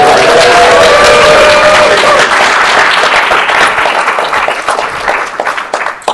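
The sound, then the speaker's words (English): A live audience at Gen Con bursts into applause and cheering, with dense clapping and a few shouted whoops, holding loud and steady before gradually thinning out over about six seconds. “Um, yes, you can scream.”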